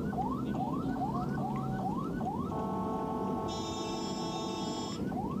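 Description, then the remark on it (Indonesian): An ambulance siren repeats rising sweeps in quick succession, then switches to a steady high electronic tone, loud over a rumbling background of dense traffic in Tangerang, with no talking. “memanfaatkan dari sirine dan rotator dari ambulan karena situasi padat”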